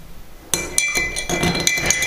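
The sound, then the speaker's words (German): A metal spoon stirs briskly in a ceramic cup, producing a run of bright, ringing clinks that repeat in quick, uneven succession for over a second with no voices. “Ja, ihr hört es wieder am Rühren, dass es die Keramiktasse ist.”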